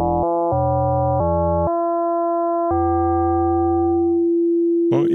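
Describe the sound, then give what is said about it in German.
A steady FM-synthesized tone, made by frequency modulation, holds one fundamental pitch while bright, metallic overtones shift in blocks above it, with a low buzzing layer switching on and off before fading near the end. “wir machen eine Frequenzmodulation, deswegen ist es einfach FM”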